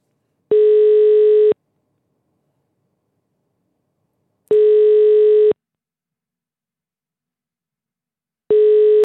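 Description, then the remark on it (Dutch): A telephone ringing tone while calling a notary: a steady, clear buzzing beep lasting about a second, repeating three times with long silent gaps between, with no voices. “Ja, hopelijk neemt ze op. Oké, even intikken.”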